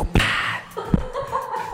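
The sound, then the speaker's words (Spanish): Someone vocally imitates a whip lash: a sharp crack with a hissing swish trailing after it, then a second softer snap, with faint chuckling around it. “Hay, una parte en la que dice, mira, mira, aquí como que hasta da latigazos así.”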